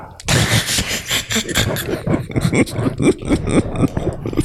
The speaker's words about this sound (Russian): Шкафчик открывается. Пыльный шкаф открывается для тебя.